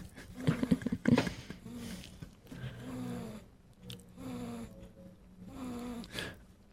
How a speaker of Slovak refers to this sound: A ten zvuk toho Darth Vadera, ktorý tu dýcha do toho mikrofónu, to je zvuk matinho dieťaťa. Aby mm. poslucháči mali jasno v tom, čo počujú.